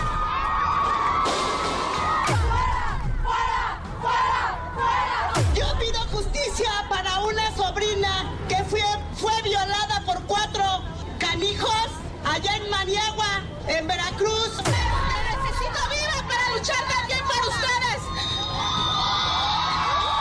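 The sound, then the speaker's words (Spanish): A large crowd at a women's demonstration cheers and shouts steadily, with high whoops and voices rising over a constant roar of babble, and a few sharp bangs or drum hits breaking through. “Es un orgullo muy grande estar en esta manifestación con mi granito de arena para la mujer.”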